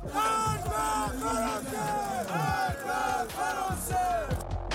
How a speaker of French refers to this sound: Ils ont crié mort à la France, ils ont brûlé son drapeau.